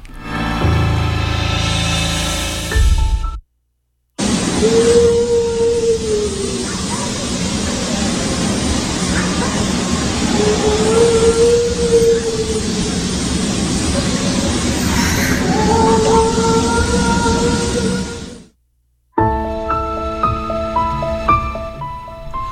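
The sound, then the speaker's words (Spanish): Eerie, drawn-out wailing cries, presented as cries of La Llorona, rise and fall several times, half-buried in a loud, steady wash of hiss and rumble, with brief music before and after; a 15-second recording from a house in the Yegocebé neighbourhood, gathered via social media. “Bueno, estos son eh, los eh, gritos de la llorona que se recabaron a través eh, de las redes sociales”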